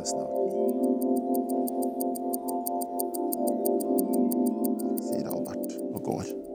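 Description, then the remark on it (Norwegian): A kitchen clock ticks steadily and evenly throughout, its crisp clicks sitting above a sustained low tonal hum, with a few brief sweeping sounds near the end. “Nede på gaten er lyktene tent og klokken på kjøkkenet.”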